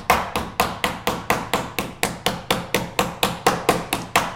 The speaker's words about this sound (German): Während du klopfst,